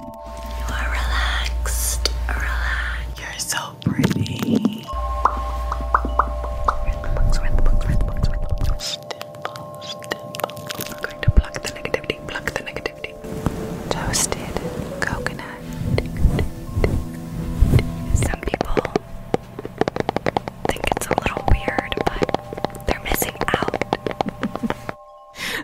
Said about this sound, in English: I wanted to play more of these uh, these uh, sounds uh, that, as you mentioned, Dr. Richard, uh, these ASMR videos might help people relax and for people who are dealing with insomnia. Here's a little bit more.